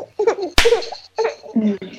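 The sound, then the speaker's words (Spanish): One sharp, loud hand clap cracks out once, made as a clapperboard-style slate, a bright slap with a quick decay, set between bursts of a person talking and giggling. “Esa palmadita. Ahí está.”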